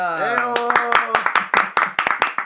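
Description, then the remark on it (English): A small group claps hands for a guest in a quick, uneven burst of sharp slaps, fairly loud, while voices talk and laugh over the top at the start. “he gets real claps.”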